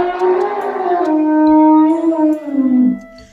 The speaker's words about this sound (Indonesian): Lalu tanpa aba-aba, gajah tua itu memperdengarkan suara indahnya.